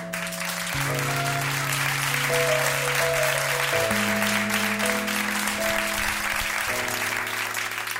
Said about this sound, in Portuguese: Um forte aplauso para isto.